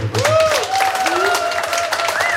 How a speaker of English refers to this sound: Round of applause.